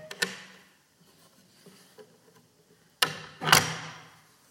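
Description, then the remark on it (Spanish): The automatic latch of a wooden window clicks sharply open near the start, a few soft rattles follow, then it snaps shut with two loud knocks. No voices. “Ah, mira, el pestillo, este pestillo es automático, se mueve.”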